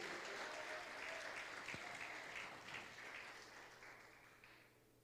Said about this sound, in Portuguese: Você pode dizer aleluia e aplaudir a Ele com mais garra, queridos?